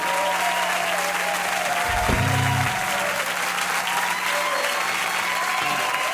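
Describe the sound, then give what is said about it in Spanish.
Steady applause from a crowd, a dense wash of many hands clapping at an even, fairly loud level throughout, with a brief low thump partway through and no voices. “Un minuto de aplauso.”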